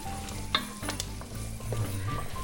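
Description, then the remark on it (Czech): A vegetable base sizzles steadily in a hot pan on a stove while a utensil stirs it, with a few sharp scrapes and clicks against the pan; continuous, no talking. “Takže my už jsme u plotny takže ten základ zeleninový se nám krásně smaží.”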